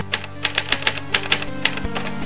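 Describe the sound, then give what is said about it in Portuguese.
Keyboard typing on an AlphaSmart, a string of crisp, plasticky key clicks in an uneven rhythm, fairly loud over a faint steady hum, with no voices. “Esse é alfasmart aqui é o que? É um”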